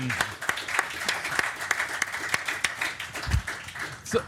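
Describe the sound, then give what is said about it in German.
A live audience at a Fußball MML Live show in Berlin applauds itself, many hands clapping in a dense, continuous patter with sharper individual claps standing out, and a few brief shouts rising near the end. “weil jetzt dürft ihr euch nämlich selbst applaudieren.”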